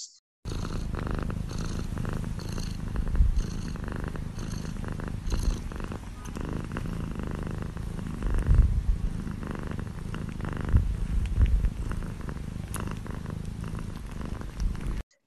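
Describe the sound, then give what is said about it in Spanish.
Steady, continuous purring from cats being petted, a low rumbling drone that holds for the whole stretch with slight swells in loudness, no talking over it. “Hora de cariños, gatitos.”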